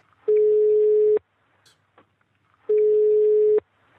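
A telephone ringback tone heard while a fourth person is being added to a call held over Skype and telephone: two steady, mid-pitched beeps, each just under a second long, separated by a pause of about a second and a half. No voices are heard.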